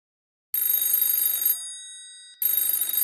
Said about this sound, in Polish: Telefon w pokoju hotelowym zadzwonił kilka minut po ósmej rano.